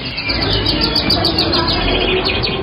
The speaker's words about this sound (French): Et si on tend l'oreille, on entend bien sûr les petits oiseaux.